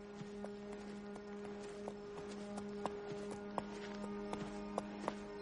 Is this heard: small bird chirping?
no